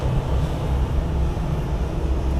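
An airplane coming in to land: a steady, deep engine rumble with a broad roar on top, holding an even loudness throughout with no voices.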